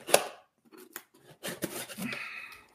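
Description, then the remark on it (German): A sharp click followed by a few short, scratchy slicing strokes of a utility knife cutting through material, with no one speaking. “Ich habe hier übrigens auch ein Cuttermesser.”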